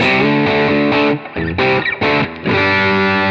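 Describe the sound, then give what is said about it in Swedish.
A loud distorted electric guitar played through an amp, with the bass cut knob turned back to full bass and the gain at about two o'clock, has a full, heavy low end and plays several sustained chords separated by brief choppy breaks, with no talking over it. “Ja, och sen går vi tillbaka, och sen sätter tillbaka till full bas igen.”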